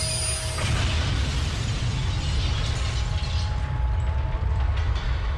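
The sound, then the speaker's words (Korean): A train rumbles and rattles steadily while thin, high metallic squeals of braking run over the heavy low noise as it comes to a sudden stop; the clattering mechanical grind stays loud throughout, with no voices. “아니 왜 기차가 갑자기 멈추는 것이지? 무슨 일이 있나? 갑자기 멈추는 기차.”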